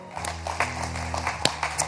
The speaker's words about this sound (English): Can we clap our hands one more time?